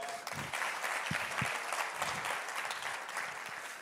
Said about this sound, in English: Should we give everyone a round of applause?